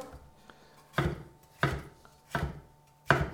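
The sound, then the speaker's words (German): A knife chops through the last bell pepper half on a board: four crisp, crunchy strokes at a slow, slightly uneven pace, each a short sharp cut with a brief scrape, over a faint steady hum. “So, die letzte Paprikahälfte.”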